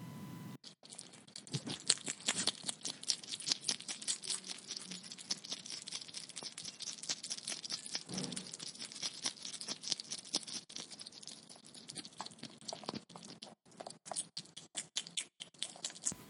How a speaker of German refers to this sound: Das sind die Fressgeräusche von einem Igel. Die schmatzen nämlich ganz schön, wenn sie fressen. Zum Säugetier des Jahres wurde der Igel, genauer gesagt der Braunbrustigel Erinaceus europaeus gewählt.